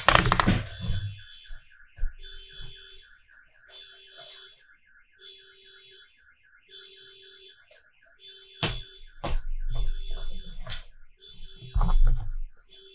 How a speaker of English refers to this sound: So all of the cars in my parking lot are going off.